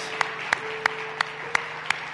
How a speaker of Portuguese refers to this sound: E uma vez que estão aí, pois Dê um aplauso a Jesus Cristo, Ele é digno disso e de mais coisas, verdade?